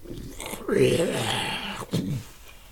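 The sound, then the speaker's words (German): A person voices a low, snarling growl like a wild beast as the sound of a door opening, one sustained rumble lasting over a second, then a short rough burst at the end, fairly loud. “Die, Tür geht mit einem Geräusch, das klingt wie das Knurren einer wilden Bestie.”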